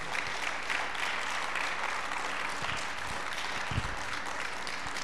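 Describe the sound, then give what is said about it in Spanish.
Sustained audience applause offered to the Lord, a dense, steady wash of many hands clapping at an even loudness for about five seconds, with a few low thumps near the end and no talking over it. “Si alguien tiene oídos espirituales, regálenle un aplauso bien fuerte al Señor esta tarde.”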